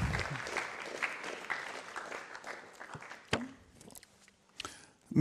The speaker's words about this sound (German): Ja, geben wir Jesus einen Applaus. Er ist das Licht.